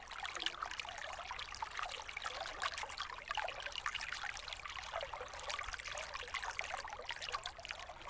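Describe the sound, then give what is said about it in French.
Icy spring water trickles and splashes steadily, cascading through small basins carved lengthwise into hollowed tree trunks, a continuous bright babbling with tiny irregular drips, moderately loud, with no voices present. “Des troncs sont creusés dans le sens de la longueur et forment des petits bassins dans lesquels l'eau s'écoule en cascade.”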